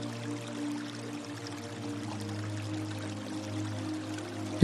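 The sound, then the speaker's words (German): A steady wash of water trickles and splashes at a distance, a soft continuous babble over a low, even hum, with no voices. “Möglicherweise hörst du mittlerweile aus der Ferne Wasser plätschern.”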